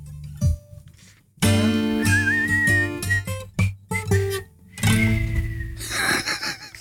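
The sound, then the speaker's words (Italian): Someone whistles a short, wavering melody, the tune sliding between notes with brief pauses, over a fuller backdrop of sustained tones. “C'è stata una zanzara che ha interferito con il mio fischio.”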